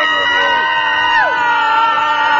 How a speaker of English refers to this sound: scream again for the horror movie.